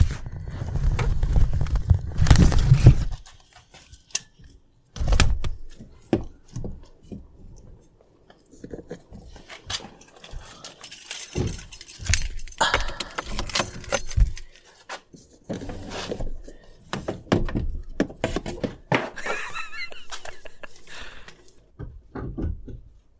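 Car doors thud open and shut amid a jumble of clicks, rattles and a jingle of keys, with a loud rumbling burst at the start and scattered handling noises after, with no talking.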